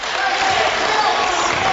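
Dwenger bench players clap steadily during a basketball game against Wayne, over a dense, constant wash of crowd noise, the claps blending into a bright, unbroken roar with no single beat standing out.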